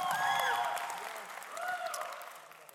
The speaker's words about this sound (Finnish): Pienet aplodit, pienet aplodit, pienet. Kyllä!